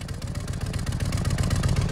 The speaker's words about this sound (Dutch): Dus eh, je kan s'morgens gewoon je motor stil starten. Eh, de motor functioneert ook gewoon hetzelfde zoals hij altijd moet doen. Hij heeft volledig vermogen, eh, maar is wel gewoon mooi stil.